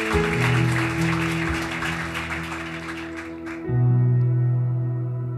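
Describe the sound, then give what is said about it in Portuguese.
A church audience claps steadily for Jesus for a few seconds over sustained organ-like chords; the clapping then stops and the held keyboard tones ring on alone. “dá uma salva de palmas a Jesus para a pastora beber uma água”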